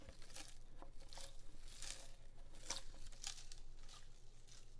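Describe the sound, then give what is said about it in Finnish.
A single small crystal rattles inside an otherwise empty bottle of Rodinal film developer as it is shaken, giving several irregular bursts of light, gritty clicking and crinkling, quiet, with no one talking. “Tämä on, tota, tämä on rodinaalipullo, jossa on pelkkä se... Mä yksi kide.”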